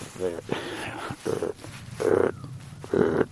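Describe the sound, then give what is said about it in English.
A man's voice imitates a deep deer grunt call, giving several short, low, throaty grunts in an uneven series, fairly loud, with a brief bit of talk at the start. “like that, real deep grunt.”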